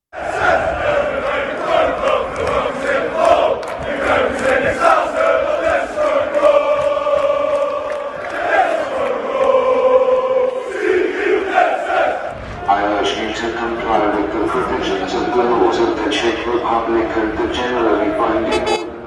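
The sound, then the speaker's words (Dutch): A large crowd of Feyenoord football supporters, marching to the Sinobo stadium in Prague, chants loudly in unison, voices rising and falling in sustained sung phrases, with a few horn toots mixed into the steady roar. “supporters zijn na die mars naar het stadion aangekomen in het Sinobo-stadion.”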